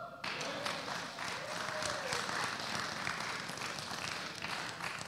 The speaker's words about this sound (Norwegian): Så bra! Gi han en klapp.